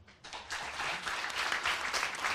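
An audience bursts into applause, a dense, steady wash of many hands clapping that swells quickly after a brief quiet start and stays strong throughout, with no voices standing out.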